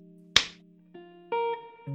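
A single sharp slap cracks out loudly, then fades into steady electronic tones that shift upward in pitch, with no voices present.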